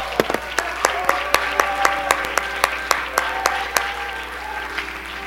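A crowd of people clapping their hands unto the Lord in steady applause after a prayer on a Tuesday night, with sharp individual claps standing out above a dense, continuous patter that fades slightly toward the end.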